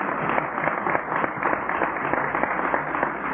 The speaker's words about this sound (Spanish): Le vamos a dar un aplauso para ellos, para él.